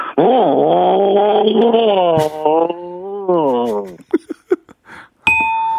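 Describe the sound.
A voice imitates a Harley motorcycle engine with a loud, steady, throaty droning hum that wavers in pitch for about four seconds, then breaks into a few short bursts before a brief electronic tone.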